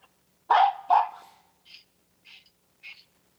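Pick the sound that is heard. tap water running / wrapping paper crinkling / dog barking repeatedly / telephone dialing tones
dog barking repeatedly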